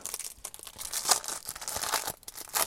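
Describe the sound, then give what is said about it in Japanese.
Paper crinkling and tearing as a package containing a book is ripped open inside a car, a dense run of crackly rustles and sharp rips, with no talking. “開封のギガギガ”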